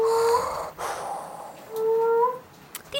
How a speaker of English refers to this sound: must be a male moaning frog, because only the boys make the sound when they're trying to find a mate.